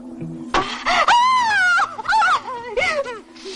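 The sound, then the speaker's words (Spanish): A strained, high-pitched cry rises and wavers for a few seconds, breaking into sobbing, moaning bursts before trailing off, loud over a low steady hum. “Los hombres que interrogaban a Henriette se levantan al oír el grito y apunta al estudiante con su arma.”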